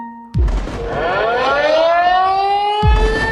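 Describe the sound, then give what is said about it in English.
An air raid siren wails as an alarm that bombing is coming, its tone climbing slowly and then holding high and loud, with a heavy low thump at the start and another near the end. No one speaks. “警报声响了，一定是炸过来这里了。”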